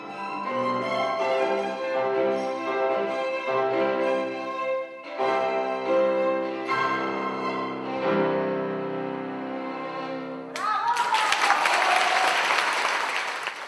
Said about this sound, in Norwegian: Og som vi hører, var applausen stor i nesten fullsatte salen.